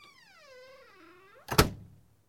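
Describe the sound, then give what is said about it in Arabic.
A house door creaks slowly on its hinges with a long, wavering squeal, then bangs shut by itself with a single loud thud that quickly dies away. “وبيسكر الباب وحده”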